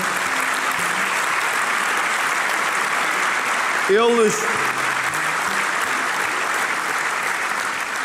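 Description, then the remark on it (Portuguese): An audience at a Chega party congress applauds the European leaders and partners present, dense, steady clapping filling the whole stretch at an even loudness, with a man's voice briefly speaking a word over it midway. “Uma grande salva de palmas para eles.”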